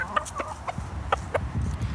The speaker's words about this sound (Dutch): Excuses voor de wind. Ik zal mijn hand er een beetje voor houden. Ik loop nu op de oude IJsselbrug bij Zutphen.